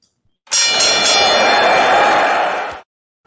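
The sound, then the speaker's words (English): A loud metallic bell rings with a bright, clanging ring that sustains for about two seconds before cutting off abruptly. No one speaks over it. “So I'm gonna go ahead and ring the bell, and we'll get into it.”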